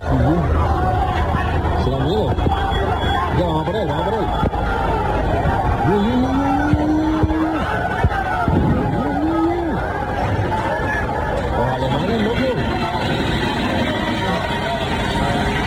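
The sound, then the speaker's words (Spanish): Street brawl between football fans at the Puerta de la Carne in central Seville, in front of the so-called firefighters' bridge, with chairs, umbrellas and tables thrown: a chaotic outdoor crowd roars and yells continuously, with a few drawn-out shouts rising above the tumult and traffic faintly underneath. “Una tremenda bronca que se producía allí delante del llamado puente de los bomberos en la puerta de la carne.”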